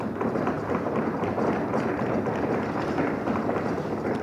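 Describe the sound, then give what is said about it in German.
Council members rap on wooden desks as applause after a unanimous vote with 42 yes votes, a dense, continuous clatter of knocks, steady and fairly loud for about four seconds, with no speech over it. “mit diesen Klopfern einen Gruß an Stetzana 3 und also an allen Beteiligten für diese wichtige Arbeit”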